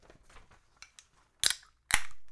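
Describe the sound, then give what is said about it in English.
Bud Light beer bottles knocked together, giving a dull clack more than a ringing clink: two faint taps, then two loud, sharp knocks about half a second apart. No talking. “That was a clack more than a clink.”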